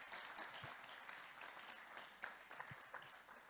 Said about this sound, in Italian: Amen. Facciamo un applauso. Sì. Possiamo farlo.